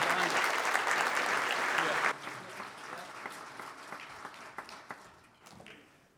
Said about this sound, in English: Let's give the Lord a hand clap of praise for that. Thank you.